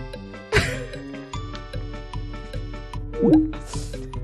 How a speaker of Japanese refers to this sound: まあ、今のシャワーがもうちょっとミステリーです。うん、シャワーを浴びてるのにちゃんと取ってくれる、